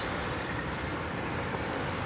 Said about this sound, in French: On est derrière le bus 65 qui vient de nous faire redémarrer en côte.